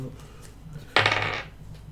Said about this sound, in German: So. Ist der Würfelwurf.